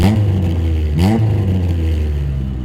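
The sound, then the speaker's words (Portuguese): A car engine revs hard, its pitch rising in two quick surges before settling into a steady, loud roar as the vehicle pulls away, with no voices present. “tu bate nela e volta pro carro. E Eu noto a mordida? Não, vocês saem com tudo.”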